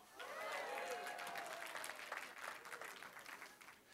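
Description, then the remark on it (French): An audience claps steadily for about four seconds, a dense crackling wash of many hands, with a few raised voices or cheers mixed in near the start before the clapping thins slightly. “Et ça, ça mérite plus d'applaudissements encore.”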